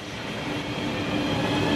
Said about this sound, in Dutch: De trein naar Maastricht. Daar gaat hij, let op. Vol, vol.